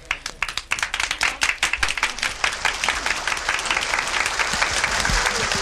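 An audience bursts into applause, many hands clapping in a dense, crackling wash that starts in sharp separate claps and swells into a steady, sustained roar lasting several seconds.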